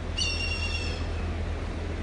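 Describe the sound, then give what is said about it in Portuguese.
A single high, thin whistling call from an eagle at its nest in a large Indian fig (ashwatha) tree in India rings out for under a second, clear above a steady low outdoor rumble, with no one speaking. “Então estamos aqui embaixo de uma grande árvore onde tem uma águia com seu ninho, vocês devem estar escutando”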